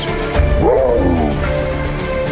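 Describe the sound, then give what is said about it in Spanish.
A single loud, ferocious animal roar rises and falls in pitch over a low, rumbling growl, powerful, with no voices present. “Así, se inclinó y escuchó un rugido feroz.”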